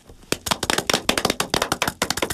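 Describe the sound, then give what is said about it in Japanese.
Applause from what sounds like a small group: a quick, uneven patter of sharp, bright claps that starts abruptly and continues steadily for a couple of seconds, with no voices. “はい、ちょっと拍手するのもちょっとちょっとちょっとって思うのもありますけれども、はい、ラジオ日経競馬アーカイブズ今日は思い出の名馬キーストンをお届けいたします”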